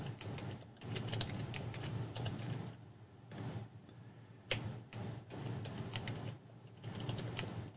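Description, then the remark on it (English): Rapid, uneven clicking of keys on a computer keyboard as someone logs in to a website, with short pauses between bursts of typing, fairly quiet, with no voices. “And I can't type.”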